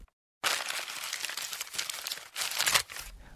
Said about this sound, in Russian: Он вскрыл конверт и громко произнес.